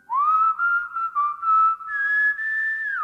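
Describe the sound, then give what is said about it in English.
A sourdough whistles a short melodic phrase while working with a gold pan: a rising first note, a few connected notes, then a higher pitch held until the end. Clear and steady, with no talking. “The Whistling Egg Man”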